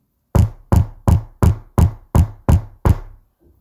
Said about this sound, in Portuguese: Batidas na porta. Quem seria?